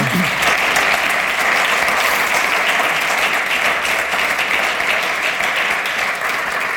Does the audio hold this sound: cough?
no